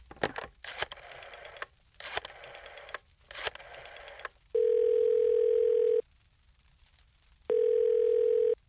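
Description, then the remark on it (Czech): A phone call being placed: a few quick bursts of dialing noise, followed by two long, steady telephone tones separated by a pause of silence, clear. “So, let's go and make a call.”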